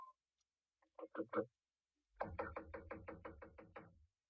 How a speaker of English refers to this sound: It gave me a strange feeling as I raised my hand to knock on what once had been my own living room door.